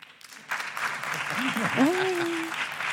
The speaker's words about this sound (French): Alors par applaudissement, qui est contre